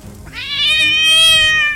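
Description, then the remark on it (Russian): A large cat lets out one long, drawn-out meow, loud, rising at the start and then holding steady until it fades out. No other sounds or voices. “Пламя, точно огненный петуший гребень, уже вырывалось из слухового окна, как вдруг по стене скользнула на землю – большая кошка с горящими глазами.”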